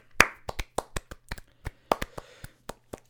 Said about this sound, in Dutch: Ik, wacht, ik wil gewoon even een applaus geven voor die personen. Zullen we een applaus geven voor die personen?